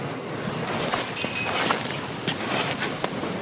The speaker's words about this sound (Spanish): Solamente se oye el rachear de las zapatillas.